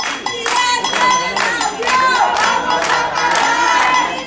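A large crowd of protesters gathered outside a home in Barcelona where a family faces eviction chants and shouts in rhythmic bursts, with clapping and overlapping voices filling the air loudly and continuously.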